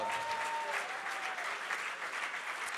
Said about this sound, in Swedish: Oh, ska vi ge en applåd till Herren också?